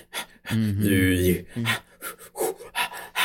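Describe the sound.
A voice imitates rhythmic, breathy panting music: a sustained voiced hum followed by a series of sharp, raspy breath bursts in a steady pulse, fairly loud.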